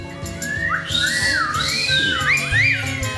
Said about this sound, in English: One of them said, Bring me a jar of beer. The others whistled.